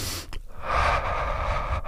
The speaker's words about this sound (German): Atmen Sie mal tief ein und wieder aus.